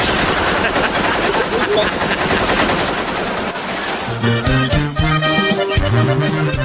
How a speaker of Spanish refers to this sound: ¿500 balazos? Armas automáticas Pecheras portaban y de cuerno las ráfagas.